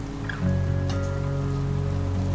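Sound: rain falling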